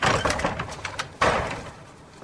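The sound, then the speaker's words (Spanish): A door is unlatched and opened: a quick run of light clicks and rattles, then a sharper knock partway through that fades out. No one speaks. “Saca dinero del bolsillo de su camisa y abre la puerta.”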